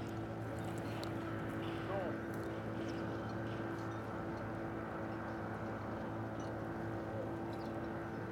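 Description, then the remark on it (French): A motorboat engine drones steadily, a continuous low hum with tonal harmonics and a constant rumble, with no pauses as the boat moves out of the harbour. “bateau à moteur sort du port.”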